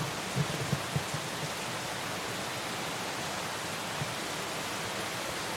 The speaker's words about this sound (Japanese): と雨が強くなってきたかな